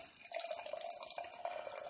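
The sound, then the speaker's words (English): Double Naked Fish beer by Duclaw, just opened, pours steadily into a glass, a continuous splashing, gurgling stream with a bright fizzy edge and no talking over it. “Opening it up. I'll pour it while you look for that.”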